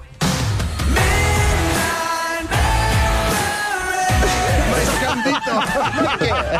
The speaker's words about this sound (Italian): L'Inter come ragione di vita. Sentiteli mentre durante il derby incitano i loro tifosi seduti sulle ringhiere urlando Milan, merda, olè.